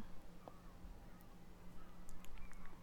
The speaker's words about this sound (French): J'entends des mouettes. Ça me rappelle que, bah ouais, en fait. Euh, on n'habite pas très loin de la mer